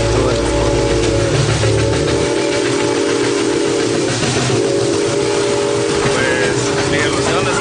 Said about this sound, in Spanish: es el tren de la muerte que le llaman. Es la bestia